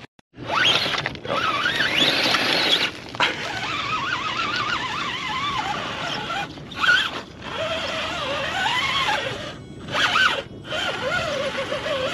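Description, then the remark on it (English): A remote control (RC) car zips around, its small electric motor whining loudly and rising and falling in pitch as it speeds up and slows, with a few brief pauses. “I think somebody has a remote control car up here distracting me from my teaching.”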